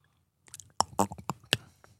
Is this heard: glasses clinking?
no